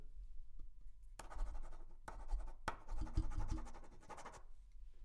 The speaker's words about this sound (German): Schreibgeräusche.